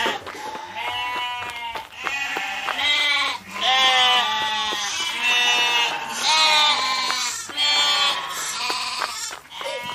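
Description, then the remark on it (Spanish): A flock of sheep bleats loudly and continuously, many overlapping wavering cries from several animals, rising and falling in repeated bursts across the whole stretch. “no corráis, venid, ovejitas, no corráis.”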